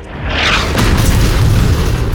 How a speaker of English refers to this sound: There was another terrific boom as In the Mood's gun discharged a second deadly shell.